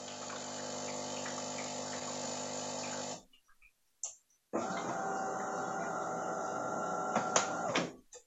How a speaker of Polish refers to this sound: No to rzeczywiście długo to nie trwało, a dysze przynajmniej i te elementy ekspresu zostały jeszcze przed zrobieniem kawy przepłukane świeżą wodą.